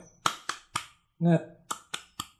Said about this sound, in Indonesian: Oh gini aja kali ya bang ya. Uh, Tepuk semangat. Se. Ma.